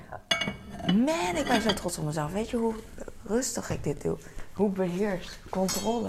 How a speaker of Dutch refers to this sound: Ah, dat mes klinkt zo goed altijd. Ting, ting. Als in een uh, kung fu film of zoiets.